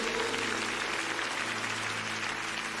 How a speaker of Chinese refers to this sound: 我拍手，将最大的荣耀归给他。